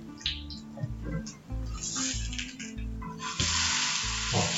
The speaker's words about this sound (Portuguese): Deixa ele fritar bem para ele criar aquela crostinha gostosa. Vou até deixar baixar um pouco o fogo agora que já esquentou, para ele não queimar. Toma cuidado na hora de virar ele, tá?